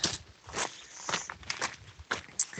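A person walks at a steady pace, each footstep a crisp, scuffing crunch repeating about twice a second, with no one talking, at half past ten in the morning on a day's walk of about 28 miles (over 40 kilometres).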